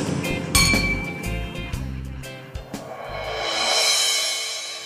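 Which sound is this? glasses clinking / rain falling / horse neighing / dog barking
glasses clinking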